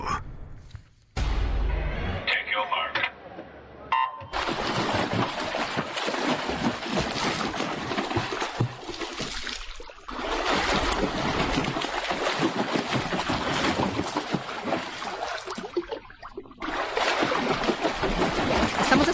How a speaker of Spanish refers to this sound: escuchando eh, sonidos de, alberca, ¿no? De agua.